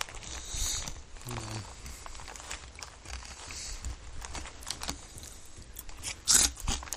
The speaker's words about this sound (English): Before coming on the air here, I was eating all these hard pieces. Hold on. There we go. That was a hard one. Here we go. One more. Here's a here's a real good one that it should make a lot of noise.